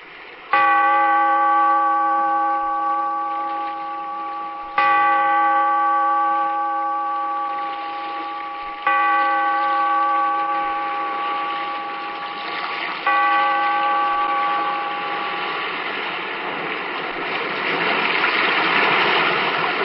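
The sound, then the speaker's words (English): A deep bell, tolled by a bellkeeper in a cave by the sea, rings four times at slow, even intervals, each stroke ringing out loud with rich lingering overtones that overlap the next, while a hissing noise swells toward the end. “Bellkeeper, toll the bell, so that all may know we are gathered again in the Weird Circle.”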